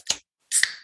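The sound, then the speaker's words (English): A beer can cracks open: a sharp metallic click, a brief pause, then a bright hissing rush of escaping fizz with a second click inside it. No one speaks. “But before we do that, since the name of the show is Bruising and Boxing, we have to crack, crack, well, crack, crack a beer.”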